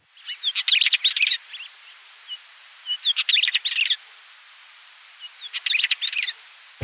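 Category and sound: bird, northern wheatear song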